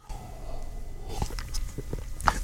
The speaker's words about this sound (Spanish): vale la pena tomar un traguito de este té que tengo junto a mí, así que con su permiso.